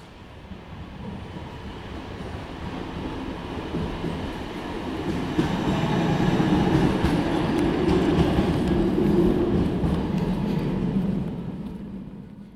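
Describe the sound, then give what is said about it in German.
Train station ambience at the Kulturbahnhof in Kassel, with a rail car rumbling through, a steady low mechanical roar that swells in the middle and fades toward the end, faint clatter and hiss on top, no one speaking. “Ich befinde mich am Kulturbahnhof in Kassel, habe gerade den Südflügel passiert.”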